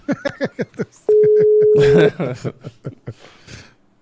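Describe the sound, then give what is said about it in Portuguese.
A WhatsApp phone call to a fighter rings out: one steady, loud, mid-pitched ringback tone lasting about a second, with people talking before, over and after it while waiting for an answer that does not come. “Acho que ele tá com o Charles, porque ele não vai atender.”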